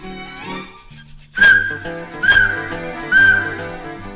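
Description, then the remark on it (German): Three shrill, hissing blasts of the whistle of a small local steam train running between Salzburg and Bad Ischl ring out about a second apart, loud, over cheerful band music playing underneath. “Zwischen Salzburg und Bad Ischl pfeift der liebe kleine Eisenbahn, raucht ein bissel, pfaucht ein bissel und dann taucht sie wieder an.”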